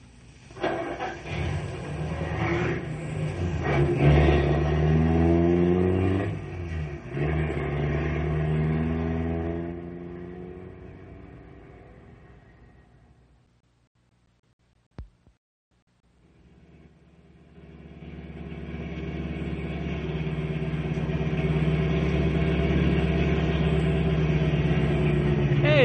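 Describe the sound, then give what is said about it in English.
A hot rod's engine revs loudly with rising and falling pitch, then fades to silence as it drives off; after a brief click, another low engine rumble swells up and holds steady. “But you park your hot rod outside the gate, understand?”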